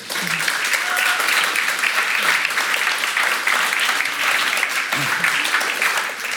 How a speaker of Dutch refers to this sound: Grote applaus voor hun.